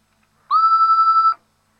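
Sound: answering machine beep tone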